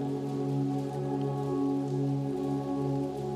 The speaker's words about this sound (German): mit allen Sinnen berauscht, plätschert der erst noch unangenehme Regenfall wie ein brausender Applaus an uns vorbei und heißt uns auf unserer heutigen Reise willkommen.